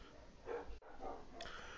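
Several neighbors' dogs bark in a steady, overlapping chorus, with a brief break in the middle before the barking resumes at a similar level.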